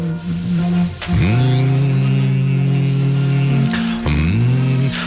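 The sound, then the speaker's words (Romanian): A voice imitates a mosquito's buzz, a loud, steady nasal drone that holds for several seconds, with two brief swooping dips in pitch before settling back into the whine. “Mai facem ca țânțarul de la...”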